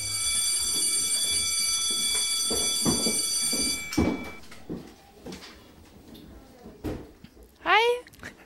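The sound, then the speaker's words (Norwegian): A school bell rings in to start a lesson, with a steady, buzzing electronic tone for about four seconds, then cuts off, followed by scattered bumps, shuffling and murmuring voices in a classroom. “Ja, da ringer det inn, faktisk.”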